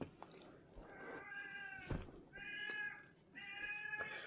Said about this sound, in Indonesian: suara ucing